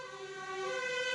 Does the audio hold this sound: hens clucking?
no